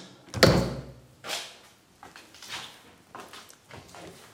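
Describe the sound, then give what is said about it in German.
A door shuts with one loud, solid thud, followed by a few softer knocks and shuffling movements that fade over the next few seconds. No one speaks. “Tür ist wieder zu.”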